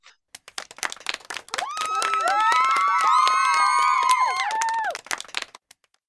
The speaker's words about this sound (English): And I have to tell you, we just have to stop and applaud that.